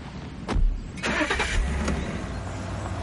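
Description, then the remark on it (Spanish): A gray sedan's engine cranks and catches, with a few sharp mechanical clicks, then settles into a steady low rumble as the car pulls off. No one speaks. “El coche se marcha.”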